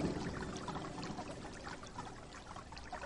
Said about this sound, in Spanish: El agua resbalaba por las piedras y mojaba todo a su paso.